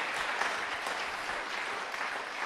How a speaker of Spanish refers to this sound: Den un aplauso al varón de verdad, al hombre.